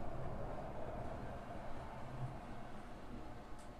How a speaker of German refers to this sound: Ich hoffe, man hat es gehört. Wie der Bus bei mir vorbeifuhr, weil ich muss mal hier kurz lüften, ne?